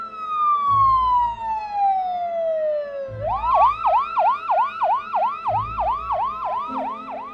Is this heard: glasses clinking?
no